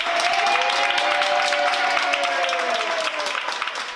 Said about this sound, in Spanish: La evolución de los pacientes de coronavirus, en algunos casos, es desesperantemente lenta, tanto que aquellos que consiguen salir después de mucho tiempo lo hacen entre aplausos de los sanitarios que les han cuidado.